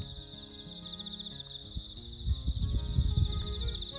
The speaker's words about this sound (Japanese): 今日も相変わらずスズムシが賑やかです